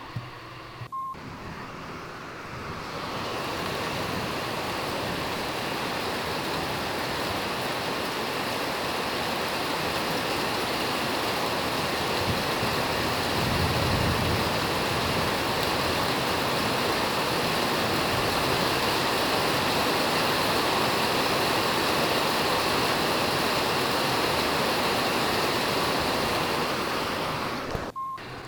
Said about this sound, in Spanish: pues ya empezó a llover aquí. Y la verdad es que sí está como que un poco fuerte. Pero pues creo que no va a durar mucho porque ya está bajando.